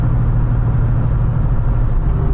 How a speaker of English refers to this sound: You know, I've been coming down on this rig, driving by 9 on Interstate 10 through Tucson, El Paso.